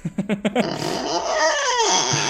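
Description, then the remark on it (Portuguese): A voice imitates the creaking of an iron gate at a house when the wind hit it: a few short stuttering creaks, then a long, wavering, high-pitched groaning howl that bends up and down for about two seconds. “É, eu tinha um portão de ferro na minha casa que quando o vento batia, ele fazia aqueles.”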